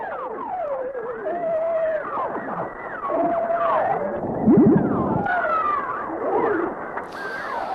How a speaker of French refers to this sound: voilà encore un dernier son qu'on peut entendre quand on met un hydrophone dans l'eau. Cette fois, c'est encore un sonar militaire enregistré à bord d'un sous-marin soviétique avec un son de baleine aussi.